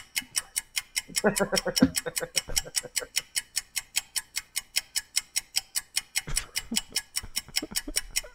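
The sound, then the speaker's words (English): A steady, evenly spaced clock ticking sound effect runs throughout, crisp, with brief bursts of voices and laughter breaking in near the start and again toward the end. “I'm just gonna keep the ticking clock right there.”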